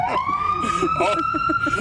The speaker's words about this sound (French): Au même moment, il y a une ambulance qui passe, qui c'est magique, je vous l'avais dit.